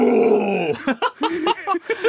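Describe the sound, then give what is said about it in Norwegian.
A voice imitates a tiger's roar: a long, loud, rough growl, followed by a few short huffing grunts. “men, ja, det er det nærmeste en tiger jeg klarer å komme.”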